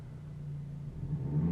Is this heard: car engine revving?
yes